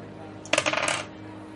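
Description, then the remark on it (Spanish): Two dice clatter onto a hard surface in a quick burst of bright clicks and rattles lasting about half a second, fairly loud, then settle into quiet. “Controlito rápido de seguir. Vale, tengo dos dados.”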